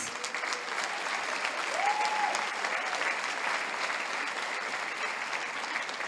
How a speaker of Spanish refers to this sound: Chicas, muchas, muchas felicidades. Un aplauso a todas ustedes.